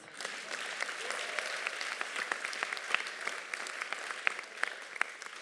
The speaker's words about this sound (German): Und ja, gebt unserem Pastor einen Applaus